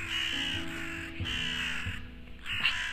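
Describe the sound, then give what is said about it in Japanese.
A crow caws repeatedly outdoors, a series of harsh, raspy calls in an uneven rhythm, moderately loud, with no talking over it. “すいませんカラスさんももうなんかそうだよね そうだよねってカーカー言ってくれてます”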